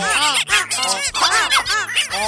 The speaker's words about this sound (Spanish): Cuando les hablaba, los pajaritos le respondían cantando.